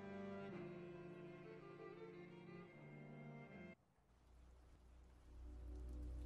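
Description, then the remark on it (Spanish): Steady rain falls in a dense, continuous hiss, striking metal and running down windows. A sustained, droning tone runs over it at first, then cuts off, leaving the rain alone with a low rumble beneath. “porque el sonido de la lluvia nos envuelve.”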